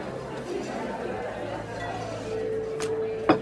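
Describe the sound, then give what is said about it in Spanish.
Over a steady murmur of crowd chatter in a hall, champagne glasses taken from a waiter's tray clink twice near the end, two bright, sharp taps, the second a little louder, with a faint ringing tone lingering beneath. “de la bandeja de un mozo, Romina toma una copa de champagne.”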